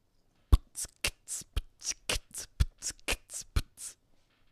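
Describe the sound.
Solo beatboxing: a voice imitates a drum beat, trading punchy bass-drum thumps with hissing snare and hi-hat bursts in a steady, quick groove of about a dozen hits, with no talking.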